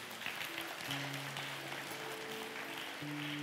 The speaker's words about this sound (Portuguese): Aplauda ele por essa palavra mesmo, em nome de Jesus.